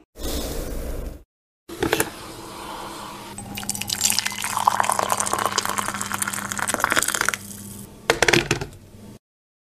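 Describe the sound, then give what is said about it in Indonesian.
Water drips and trickles steadily while Kopi Betang coffee is brewed on a cold day, a busy patter of small splashes that swells in the middle and fades out, with no one talking. “Nih, udah jadi ampun, cuma nyeduh kopi doang banyak gaya.”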